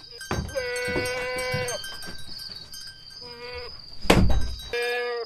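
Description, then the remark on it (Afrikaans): A goat bleats several times, loud, wavering cries separated by short pauses, with a sharp thump in between and faint farmyard noise in the background. “Waarom is maar so bang vir die bok en vir die ou vrou wat hom oppas?”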